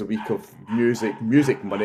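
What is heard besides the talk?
small dog yapping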